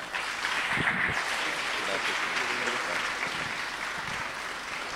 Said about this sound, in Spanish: Amén, lo recibimos con un fuerte aplauso también.